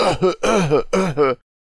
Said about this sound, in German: es bleibt ein Geruch von Rauch zurück. Ihr hustet.